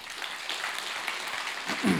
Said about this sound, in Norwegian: Skal vi gi henne en applaus, eller?